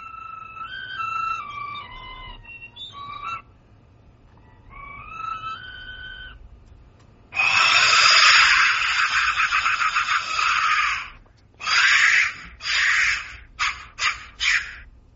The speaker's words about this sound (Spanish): sonido percutiendo el interior de uno de estos silbatos intactos de la muerte.